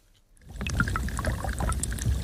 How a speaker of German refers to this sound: Es tropft. Es bilden sich Rinnsale, die sich zu kleinen Bächen vereinen. Schließlich entsteht eine Spannung, die das Eis krachen lässt. So hört es sich an, wenn die Sonne einen Gletscher zum Schmelzen bringt.